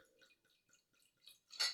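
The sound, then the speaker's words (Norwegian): Orange wine pours into a glass: soft, scattered trickling and dripping sounds, then a brief, louder bright splash of liquid near the end. No one speaks. “Eh, jeg kan helle litt oppi glasset ditt, ja, så skal jeg fortelle, for da får jeg se på etiketten der.”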